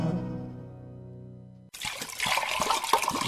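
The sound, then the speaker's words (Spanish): A tune with sustained tones fades out, then a steady rush of water kicks in, bubbling and hissing as water is heated in a kettle for mate, continuing to the end. “Ya calentamos más agua.”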